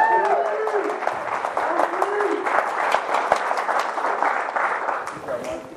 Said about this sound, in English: Took it to a whole nother level. That's right. Give me another round of applause.